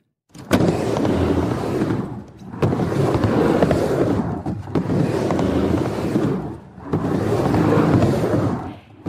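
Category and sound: tool, skateboard rolling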